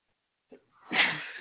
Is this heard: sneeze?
yes